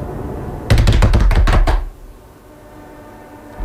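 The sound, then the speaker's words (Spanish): A quick burst of about eight loud knocks in rapid, uneven succession, imitating the scurrying footsteps of a raccoon climbing onto the roof of a house, then the sound stops abruptly into quiet background. “Pasos, y cuando abro la puerta, no me dio el tiempo para ver qué era, pero se subió al techo.”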